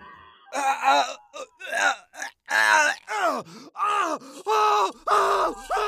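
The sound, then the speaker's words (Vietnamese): A series of drawn-out, pained groans and moans from one voice inside a woodshed, fairly loud, coming in repeated strained bursts with short breaths between them. “Cậu con trai của ông Mừng tiến về phía gian nhà củi Đang định gõ cửa gọi Thì cậu ta nghe thấy bên trong Đang phát ra tiếng rên rỉ đầy đau đớn”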